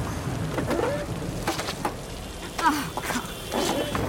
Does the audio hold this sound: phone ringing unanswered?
no